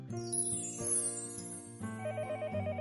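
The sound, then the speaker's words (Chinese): A telephone rings with a bright, electronic ringtone: steady layered tones with a quick warbling trill, repeating in short bursts at an even loudness. No one speaks. It is a call for help from Mother Duck to Detective Dog Wangwang (神探狗汪汪). “神探狗汪汪接到了求助电话，原来是鸭妈妈打来的。”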